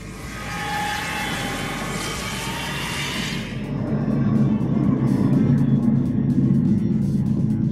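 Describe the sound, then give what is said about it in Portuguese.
A loud, steady airplane roar with a high whining edge, which drops to a deeper, heavier rumble about halfway through as the aircraft passes over. “o avião passou lá no Fernando, escutei aqui”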